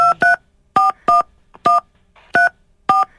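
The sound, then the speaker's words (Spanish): A phone number being dialed on a keypad to call someone's boyfriend: about eight short, clear touch-tone beeps in an uneven rhythm, each a steady mid-pitched dual tone, with no talking. “tú nomás no hagas ruido, vamos a marcarle tu vato, ¿eh?”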